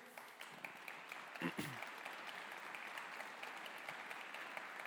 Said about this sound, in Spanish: Dar un aplauso a Dios.